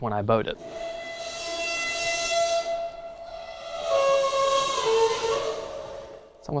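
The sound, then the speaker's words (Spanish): A metal trash can pressed against the ground and rubbed with a bow gives a loud, sustained screeching drone in two long strokes, the second sliding and wavering in pitch, with a brief voice at the start. “Pero mola todavía más si lo froto con un arco.”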